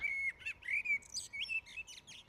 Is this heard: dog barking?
no